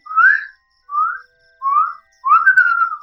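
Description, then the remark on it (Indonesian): A person whistles an imitation of a kedasih cuckoo's call: four rising, slurred notes, the first three short and evenly spaced, the last longer and wavering, loud with no talking. “Soalnya tuh burung itu kan mitosnya kan kalau dia berbunyi bersuara itu kan membawa berita buruk.”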